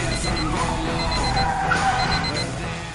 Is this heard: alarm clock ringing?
yes